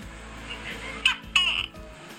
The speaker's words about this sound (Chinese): 对，我们以为是鸟，我们以为是鸟，嗯，结果后来我们去查，发现不是，它是有一点像是变色龙的东西，它有点像是壁虎，但是当地的壁虎可能很大只。